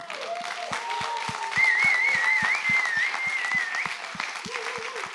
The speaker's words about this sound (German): Ich finde, wir sollten euren Technikleuten, die habe ich heute Morgen schon ins Herz geschlossen, lasst uns euren ganzen Technikleuten, die man nicht sieht, mal einen fetten Applaus geben.